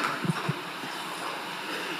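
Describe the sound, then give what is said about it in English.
Rain falls as a steady, even hiss with no voices, broken early on by two soft, low thumps a moment apart. “That's, that's the rain, right?”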